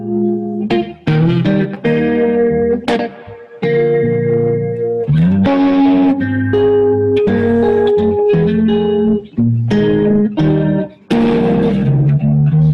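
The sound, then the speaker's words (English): An electric guitar plays a run of loud, ringing notes and chords, each doubled by a quick slap delay and shimmering with a chorus wobble, with no one talking. “the sound that I use for it is a slap delay and um, and and like a chorus.”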